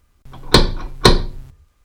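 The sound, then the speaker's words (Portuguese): Two gentle knocks on a wooden door, about half a second apart, fairly soft, with no voices: Little Red Riding Hood knocking lightly at the door in the story. “Minutos depois, Chapeuzinho Vermelho bateu de leve na porta.”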